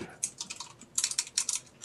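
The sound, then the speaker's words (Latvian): Rapid keystrokes clatter on a computer keyboard as someone types a hate letter, arriving in quick uneven bursts with brief pauses between them, fairly quiet, with no voices. “Kas tur krakšķis? Viņš heita vēstuli raksta karam.”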